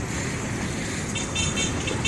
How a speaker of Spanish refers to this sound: Esta es la situación que se está viviendo actualmente dentro del en el hospital. Cómo van los carros. Cada carro lleva su, su cofre fúnebre.